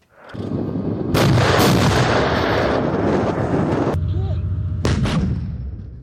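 artillery cannons firing

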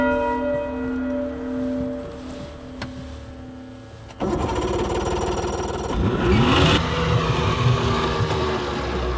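church bells ringing

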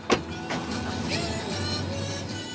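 car driving

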